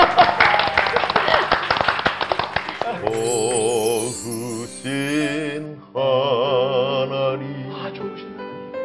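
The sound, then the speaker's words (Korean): A burst of brisk hand clapping from several people for about three seconds, fading out as a single voice begins singing a wavering melodic line of a Christian praise song. “자, 박수 좀 드리겠습니다.”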